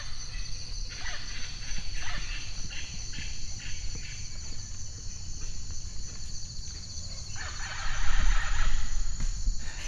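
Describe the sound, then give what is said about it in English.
A dense Amazon rainforest animal chorus, recorded for ecoacoustics study: a steady high insect drone beneath repeated harsh bird squawks that come in bursts, growing louder and busier near the end. “Well, that's a recording from it's a new field of study really called ecoacoustics, and they call that an animal orchestra.”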